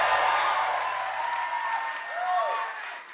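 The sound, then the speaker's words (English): A live audience breaks into loud, sustained applause, dense clapping for a few seconds, with a few scattered whoops rising over it before it starts to taper, applauding labor actions during the WGA writers' strike. “And as part of that, I have not been doing, yeah, let's applaud labor actions.”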